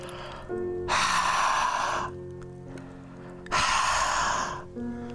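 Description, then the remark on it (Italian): Two long, breathy open-mouthed exhales blown from the mouth toward a hand, like fogging up a mirror, each lasting about a second, fairly loud, with a soft steady tonal hum underneath and a pause between them. “proviamo a espirare l'aria dalla bocca verso la mano come per appannare lo specchio eh, visualizzato che abbiamo nella mano no? e nel farlo emettiamo un, un, un leggero suono che è, viene naturale, no?”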